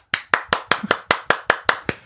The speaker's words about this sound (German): Das ist das erste Mal, dass du, dass du mir Applaus spendest.